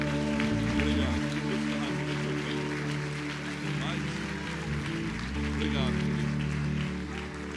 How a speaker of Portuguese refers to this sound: você pode, você vai dar uma linda salva de palmas.